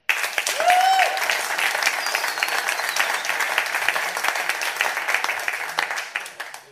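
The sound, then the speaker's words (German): A crowd breaks into steady applause to vote that the Saints will win against the Cardinals: dense overlapping claps holding at a fairly loud level for several seconds, with a brief cheer or whistle near the start, then tapering off at the end. “Wir machen mal ein kleines Applausometer. Wer sagt, dass die Saints gewinnen werden?”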